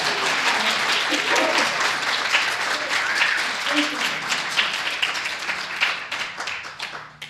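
Sustained applause from an audience for a speaker after her talk, a dense, steady patter of many hands clapping at once for several seconds before gradually thinning and fading out toward the end.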